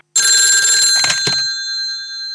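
One telephone ring on an outgoing call to Statoil: a bright, loud, metallic bell tone that sounds for about a second, with a couple of clattering bursts, then fades out gradually. No one speaks.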